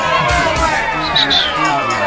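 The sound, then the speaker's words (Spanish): A loud crowd booing sound effect, a dense wash of many voices jeering together, holding steady for about two seconds with a few higher shouts rising out of the din. “No, esta cuestión se merece un abucheo, weón, con todas las ganas del mundo.”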